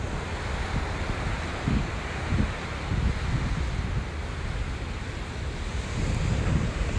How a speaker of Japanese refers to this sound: えー、ちょっとね波の音があればちょっとは BGM にいいかなと思ってちょっとビーチに来てねライブしてます